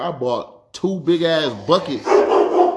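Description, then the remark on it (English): A dog named Moose, the speaker's dog, barks in the background while a man talks over it, the barking growing louder and more insistent toward the end. “That's my dog in the back. I'm sorry, y'all.”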